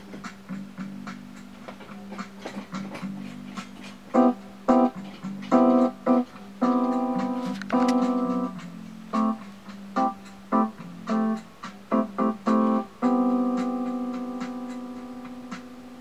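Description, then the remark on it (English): A Casio electronic keyboard plays in split mode, one voice on the right hand and another on the lower part of the keyboard: a steady, sustained low bass voice holds underneath while a brighter upper voice picks out a melody of short, clipped notes and a few longer held ones. “The 600 tones can be split so that you get one voice on the right hand and one voice on the lower part of the keyboard.”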